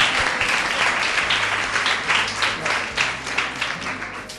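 A crowd breaks into steady applause, a dense wash of many hands clapping at once that holds at an even, fairly loud level for several seconds with no voices over it.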